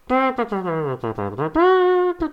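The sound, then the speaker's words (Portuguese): A voice mimics horns blaring, sustained buzzing tones rising and falling in a short fanfare-like phrase, fairly loud, with no other sounds. “Porque eu estava numa consulta e de repente me ouvi umas trompas.”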